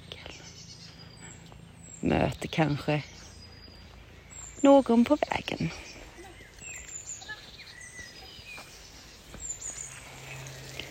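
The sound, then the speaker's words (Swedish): Scattered high bird chirps and short song phrases carry on steadily outdoors in a green landscape under clouds left from rain that are breaking up, fairly faint, while a walking person speaks briefly twice. “jag som går, sätter en fot framför den andra och njuter av att få vara i detta landskap av fåglar.”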